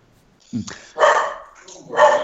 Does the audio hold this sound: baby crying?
no